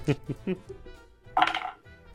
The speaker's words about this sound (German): das ist auch so ein bisschen Würfel-ASMR heute. Ich habe nur einen Cthulhu D6, deswegen muss ich ihn dreimal werfen. Oh Gott. In meine Vegas-Würfel.